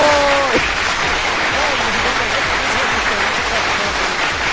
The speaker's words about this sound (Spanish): Y pongo aplausos porque no tengo luz.